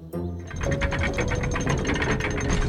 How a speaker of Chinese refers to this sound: 永动镇的城门打开了，露出了一左一右的两个通道。